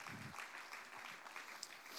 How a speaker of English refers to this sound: Whoever did made these. They did a really great job. Can, like, can we just give them a round of applause? Because this is all made out of styrofoam, if you believe it or not.